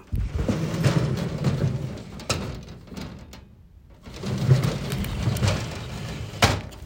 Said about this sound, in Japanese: もっとね音がすると思ったんですけど意外と普通でしたガラスの引き戸を引く音